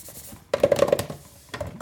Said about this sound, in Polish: Ma budowany mikrofon, jest, proszę Państwa, jednokieszeniowy. Plastik jest taki, no widać, że bardzo prosty. Taki dźwięk wydaje.